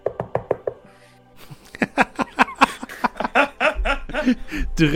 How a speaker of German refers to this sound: du hörst von vorne so ein leises Klopfen. Also der hämmert schon dagegen. Du hörst das, aber dann bin ich so ein bisschen ungeduldig, warte, höre das zweite Klopfen, es rührt sich immer noch nichts und dann klopfe ich.